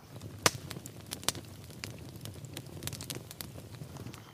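A fire crackles steadily in a fireplace, with irregular sharp pops and snaps, a couple of them louder, over a soft low rumble of burning. No one speaks.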